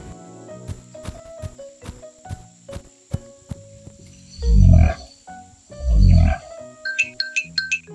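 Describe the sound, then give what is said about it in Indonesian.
A double-wattled cassowary, a large bird, gives two deep, rumbling booms, each under a second and fairly loud, after a run of sparse ticking taps, with a few bright chirps trailing at the end. “Ini adalah burung kasuari gelambir ganda.”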